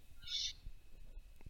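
A single short sneeze with a hissy, high-pitched burst that fades quickly, followed by faint low rustling and soft background noise.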